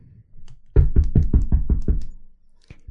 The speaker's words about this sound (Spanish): Es de noche. Alguien toca la puerta de la entrada.